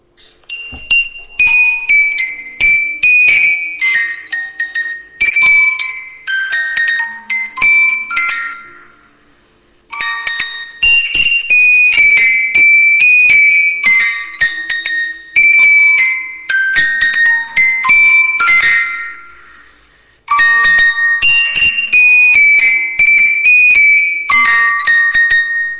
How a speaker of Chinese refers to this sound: 对对，因为这个我把这个给截了一下，我只把这八音盒这个给那什么了。等我找一下，我给你我给你听一下他这个八音盒。